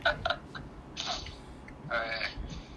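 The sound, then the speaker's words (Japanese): A forceful sneeze bursts out after a few soft breaths and shuffling noises, followed by a second breathy burst a moment later, with no one talking. “いいくしゃみ”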